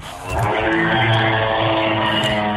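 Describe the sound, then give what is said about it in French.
Street traffic rumbles with a loud, steady engine drone that swells in after a brief quiet start and holds throughout, as cars and motorbikes pass. “Oui, bienvenue, fais attention de ne pas te faire écraser, on entend bien les voitures et les deux roues.”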